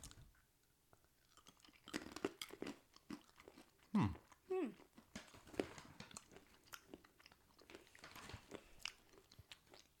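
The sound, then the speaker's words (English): Crunchy chewing of seaweed-flavored almonds, with repeated sharp bites and crackly mastication in an irregular rhythm, fairly loud, with brief vocal sounds between crunches. “ASMR chewing - everything you haven't really been asking for.”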